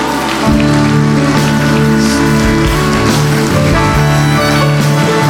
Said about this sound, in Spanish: Dele un aplauso al Señor porque Él es bueno.